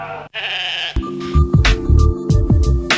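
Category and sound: animal, sheep bleating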